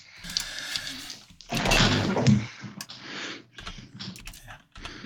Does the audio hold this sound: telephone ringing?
no